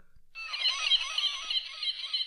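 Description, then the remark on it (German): A bird squawk sound effect, played by pressing a button in reference to Alfred Hitchcock's 1963 film The Birds, bursts in after a brief pause and keeps going for about two seconds, a harsh, shrill, screechy cry that stays loud and steady with no voices over it. “Du darfst es, äh, du darfst es die ganze Sendung machen, wenn irgendwas äh, sehr ja? Vögeliges kommt.”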